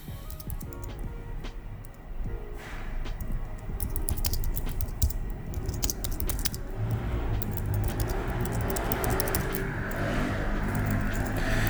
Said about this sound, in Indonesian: aduh bentar dulu ya gue ngetik dulu bentar